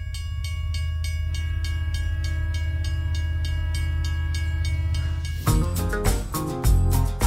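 train sound effect

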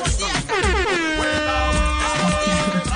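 horn blast

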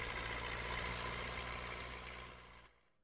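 tractor engine idling

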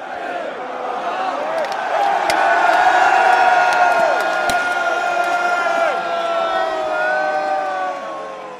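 cheering crowd

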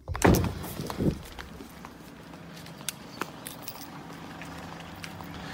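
car trunk being opened

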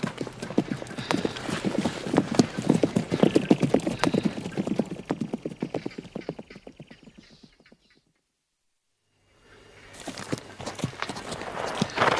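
horses walking

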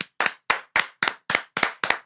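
hands clapping

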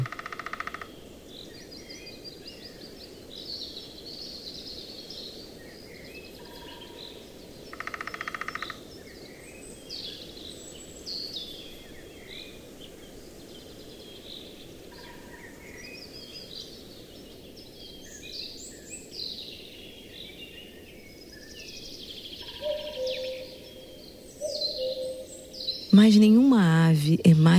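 cuckoo calling

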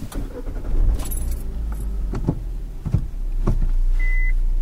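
car keys jangling

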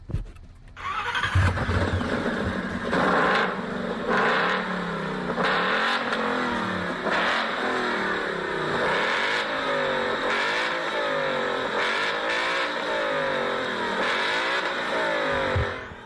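car engine revving

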